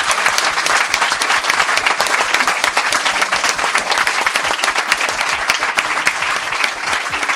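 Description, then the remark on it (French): Sustained applause from an audience applauding itself at the end of a live stream show, a dense, steady wash of many hands clapping at once with a few sharper individual claps standing out, holding loud and even for several seconds with no talk. “Bravo à vous. Applaudissez-vous.”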